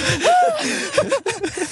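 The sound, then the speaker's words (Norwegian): A sharp, audible gasp for breath, with a slightly voiced, rising edge, followed by a few short breathy vocal sounds, as a speaker catches their breath while getting worked up in conversation. “Jeg må puste, jeg blir engasjert.”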